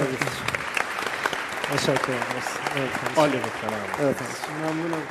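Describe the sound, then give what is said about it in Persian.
A crowd applauds a guest steadily for several seconds, a dense wash of clapping at moderate volume, with voices talking over it throughout. “از شما هم به عنوان یک فرصت آفرین تشکر میکنم و آرزوی عصر خوبی رو برای همه دوستانم دارم تشویقش میکنم ممنون”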